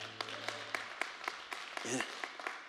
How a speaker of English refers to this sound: to give the Lord a hand clap this morning? Can we do that?